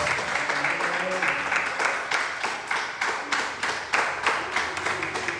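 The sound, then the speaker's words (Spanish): A crowd breaks into sustained applause for God, many hands clapping in a dense, steady wash with a loose rhythmic pulse running through it, fairly loud. “ve que estás fuerte, que estás lleno de poder y eso va a hacer que te levantes y que le des otro aplauso a Dios.”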